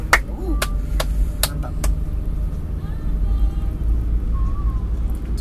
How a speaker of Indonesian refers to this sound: apa kita hargai iya kita hargai tepuk tangan dulu semua hmm.